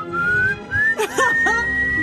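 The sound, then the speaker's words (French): A person whistles a short melody alone, the clear tone sliding up and holding steady notes, broken midway by a few brief breathy or vocal sounds before the whistle resumes. “C'est une radio, c'est une radio sifflée.”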